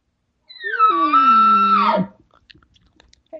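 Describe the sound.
A single short imitated bull elk bugle, mimicking a bull trying to call the cows: a loud, harmonic-rich call held about one and a half seconds, sliding downward and ending in a drop, followed by faint quiet shuffling.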